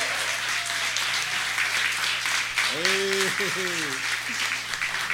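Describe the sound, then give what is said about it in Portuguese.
An audience claps steadily for the communications team in a dense, continuous wash of applause that lasts the whole stretch, with a single voice briefly calling out over it partway through. “Desculpa a gente esquece aí, mas uma salva de palmas para vocês, os comunicadores aí.”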